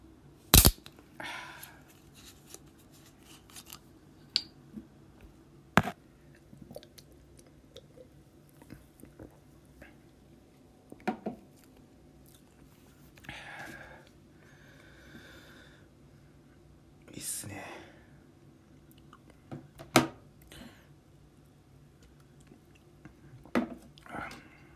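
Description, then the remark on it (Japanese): A can of Kirin Guarana soda, taken from a fridge in Abashiri, Hokkaido, is cracked open with a sharp snap and fizzy hiss, then come scattered sips, gulps and small clicks with quiet gaps between, and no one talking. “冷蔵庫開けてこちらですねキリンガラナ飲みたいと思いますちょっとねプシュッといいねもう ASMR 的なねいきますよ”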